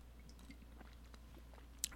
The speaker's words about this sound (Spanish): mm. traguito el cafecito. Muy bien.